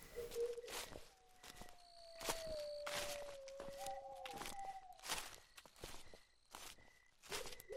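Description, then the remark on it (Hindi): Slow footsteps of someone walking just outside a temple at about 12:21, moving from left to right, crunch one after another at a steady pace, alongside a faint whistling drone and thin high tones; no one speaks. “suddenly यहाँ कुछ ऐसा होता है जिसे सुन के कोई भी डर जाएगा मुझे ऐसा महसूस हुआ कि कोई इंसान चल रहा था जस्ट मंदिर के बाहर”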